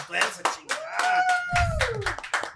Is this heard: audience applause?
yes